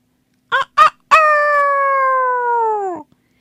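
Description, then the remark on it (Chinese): A loud rooster crow: two short clipped notes, then one long sustained call that holds steady and sags slightly in pitch before cutting off. No voices or other sounds. “幸运的鸡在岸边找到了一张木筏，大声叫起来”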